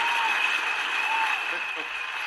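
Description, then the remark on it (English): A steady wash of applause from a crowd, dense and fairly loud, with faint whistle-like tones and cheering voices mixed in, holding at an even level for a couple of seconds, given as an introduction. “I had to give you the introduction or the uh, applause here.”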